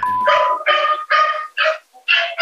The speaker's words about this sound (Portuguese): Cachorro latindo. É, cachorro, como diz a Kel, é o cenário pandêmico.